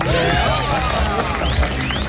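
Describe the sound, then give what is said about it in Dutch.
A crowd claps and cheers loudly and steadily for about two seconds, a dense wash of applause with whoops and raised voices mixed in, welcoming host Menno Vroom on a Friday afternoon show on the Dutch radio station Radio 10. “Nou, applaus voor Menno Vroom.”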